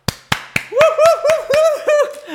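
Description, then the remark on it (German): A few sharp, evenly spaced hand claps welcoming a guest introduced as Austria's best surfer, soon joined by a loud, high, sustained cheering voice that pulses along with the continuing claps. “Einen großen Applaus bitte für.”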